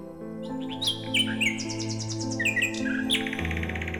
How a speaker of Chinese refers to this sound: 看起来就是一只普普通通的灰扑扑的鸟啊，连根彩色的羽毛都没有。 没错，就是它。亲爱的夜莺，皇上希望你去他面前唱唱歌啊。